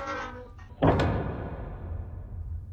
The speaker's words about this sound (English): Kirk immediately followed, and closed the door behind him.